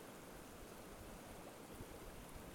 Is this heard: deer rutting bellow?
no